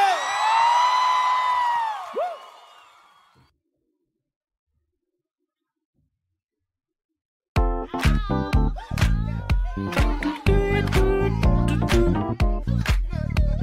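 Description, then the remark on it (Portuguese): A live crowd cheers and whoops with rising and falling shouts for about three seconds, fading into silence before loud, driving band music starts. “Quem gostou, joga a mão e faz barulho!”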